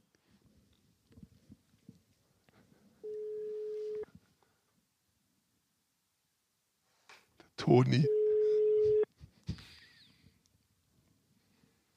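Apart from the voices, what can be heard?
phone call ringing tone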